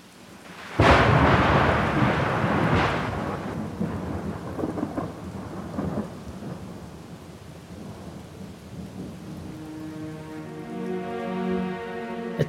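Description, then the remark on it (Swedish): A sudden, loud crack of thunder bursts out, then rolls into a long, fading rumble over steady rain, while a low sustained tone rises near the end. “Ögonblick senare kom den titaniska blixtens blixtar och sprängde det förbannade huset av outsägliga hemligheter och bringade glömskan som ensam räddade mitt sinne.”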